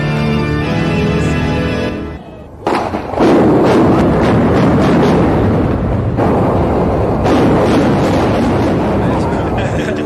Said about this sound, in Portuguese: Olha a demolição que eu comentei.